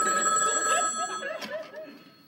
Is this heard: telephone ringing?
yes